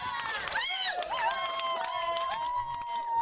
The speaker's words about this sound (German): Jubel vor dem Gericht in Den Haag. Umweltschützer siegen gegen einen der größten Ölkonzerne der Welt. Die Aktivisten feiern das als einen historischen Erfolg.